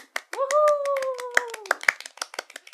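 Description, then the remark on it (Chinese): A few people clap in a quick, uneven patter of sharp hand claps, joined by a sustained, slightly falling whistle-like tone early on; the claps thin out and trail off near the end. “掌声鼓励。”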